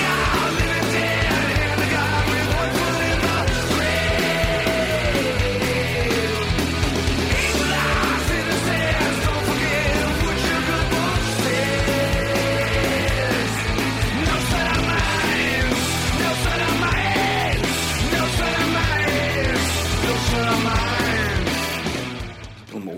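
A hard-driving rock song plays loud and dense, with a sung vocal line over pounding, steady instrumentation that runs without a break until it cuts off near the end.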